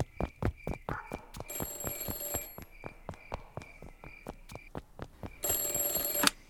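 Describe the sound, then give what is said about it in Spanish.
An office telephone rings with a rapid, rattling metallic bell, sounding in repeated bursts with brief pauses between them, clear, with no voices. “¿Eso es el teléfono de mi despacho?”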